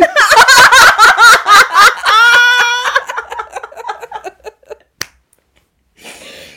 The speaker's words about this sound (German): Boah, ich glaube, klatscht ist auch ganz schlecht im Podcast, ja. aber ich muss sehr oft in die Hände klatschen